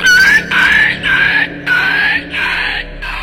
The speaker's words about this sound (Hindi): सतनाम ने ट्रक के नीचे टॉर्च मारी तो देखा दो चमकती हुई आंखें उसे घूर रही थी सतनाम ने तुरंत पत्थर उठाकर वहां मारा तो एक कुत्ता चीखता हुआ भागा